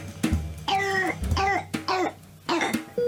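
A young child's hoarse, barking, dry croup (pseudo-croup) cough, in a run of about five harsh, raspy bursts with short wheezy breaths between them.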